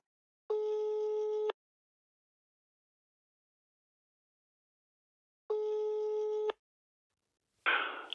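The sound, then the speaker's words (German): Two long, steady electronic ringback tones about a second each as a phone call is placed, separated by a long silent gap, followed by a brief rustle or click at the end as the call connects. “Warte mal, dann ruf ich mal, äh, ich ruf mal kurz an.”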